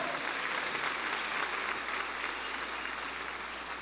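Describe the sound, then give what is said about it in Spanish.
An audience applauds the Lord steadily for several seconds during a church sermon, a dense wash of many hands clapping at once with no voices standing out, spread evenly before tapering slightly. “Dale un fuerte aplauso al Señor.”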